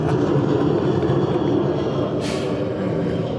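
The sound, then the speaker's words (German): A loud, steady roar of an airplane taking off directly overhead, filling the whole clip with dense rumbling noise and a brief hissing surge near the end, with no voices. “Jetzt startet er auch wirklich über unseren Kopf.”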